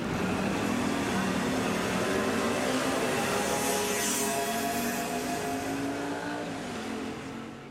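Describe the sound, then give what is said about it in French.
A steady wash of city traffic, engines humming and rumbling continuously with vehicles passing, dense and fairly loud throughout, easing slightly toward the end. No voices are heard. “Vous l'avez reconnu, il s'agit de la ville avec son activité, son trafic, ses métamorphoses.”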